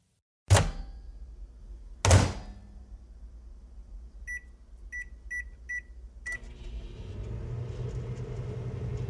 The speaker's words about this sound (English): Uh, dude, is that a regular old kitchen microwave?